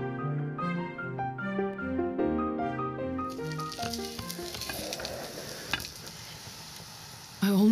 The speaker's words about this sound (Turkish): İrmikle fıstıkları kavuracağız.